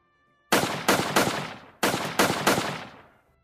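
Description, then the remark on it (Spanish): Six loud gunshots from a Smith & Wesson .44-caliber revolver ring out in two quick bursts of three, each blast sharp and booming with a reverberant tail, and no voices. “Seis disparos sucesivos retumbaron en el cuerpo del militar y terminaron con su vida.”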